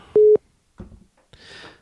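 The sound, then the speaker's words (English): A single short electronic call-waiting beep on a phone during a call, a steady mid-pitched tone with sharp edges, loud and clear, followed by quieter background rustling and faint noise. “I'm getting a, another call.”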